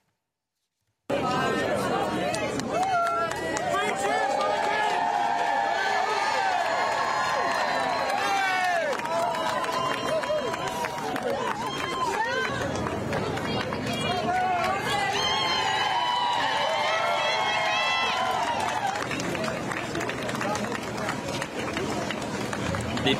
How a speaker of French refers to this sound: Et puis euh, aussi les images marquantes et cette, euh, cette God Save the King qui a été scandée par la foule au moment où, où le roi Charles III est arrivé. Regardez.